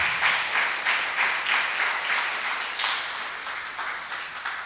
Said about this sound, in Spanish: Denle un aplauso al Rey. Déselo fuerte.